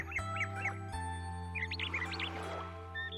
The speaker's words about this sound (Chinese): 一场夜雨，在江之南，又一个被洗得干干净净的日子，随一声清亮的鸟鸣开始了。